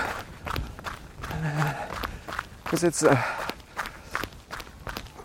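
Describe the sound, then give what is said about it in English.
Steady running footsteps crunch on the gravel beside a paved road in a quick, even rhythm throughout, while a man talks briefly over them and breathes between phrases. “it's a paved paved uh, road with gravel on the side so I choose the gravel to run on a bit more soft surface”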